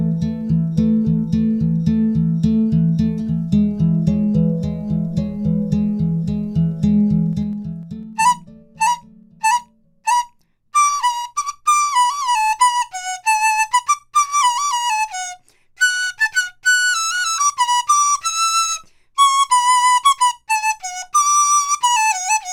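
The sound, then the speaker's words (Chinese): Low, rapid plucked-string accompaniment opens the passage before a bright, high Chinese bamboo flute (dizi) enters with the lilting melody of the ancient Chinese piece 'Yangming Chunxiao', in clipped notes and longer held phrases. It is played by a student majoring in Chinese flute at the National Taiwan University of Arts, without any talking. “哇，刚刚呢，在节目的一开始，我们听到的这是一首中国古曲《阳明春晓》，这也是我们今天的特别来宾，目前就读国立台湾艺术大学，主修中国笛。”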